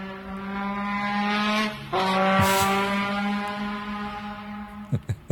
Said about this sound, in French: Euh, dites-moi si vous entendez le son de ce scooter.